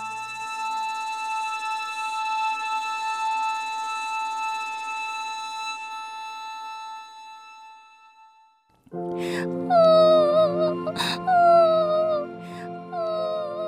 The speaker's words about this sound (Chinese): 小公主越哭越伤心，树上的鸟儿听起来好像都在安慰她，可是小公主不断地掉着眼泪，一点也停不下来了，因为她真的好伤心哦。